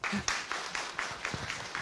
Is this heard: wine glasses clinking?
no